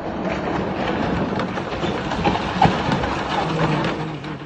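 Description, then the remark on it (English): A house collapses into floodwaters after the collapse of a dam on the Dnipro River in Kherson, southern Ukraine, in a Russian-occupied town: a loud, steady rumbling roar of rushing water and crumbling debris, broken by one brief sharp crack partway through, with no voices. “As always, with these stories coming out of Ukraine, I cannot imagine myself in this situation, but that's the sound of a house collapsing into the floodwaters.”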